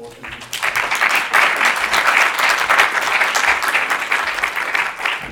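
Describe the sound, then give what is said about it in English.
Warm audience applause at a seminar, welcoming the second speaker, from the Doha Institute: a dense steady patter of many hands clapping that swells quickly after a brief lead-in and holds at full strength throughout. “Please, a warm welcome.”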